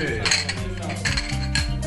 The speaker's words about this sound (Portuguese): Saúde. Agora, vamos brindar. Isso aí. Saúde.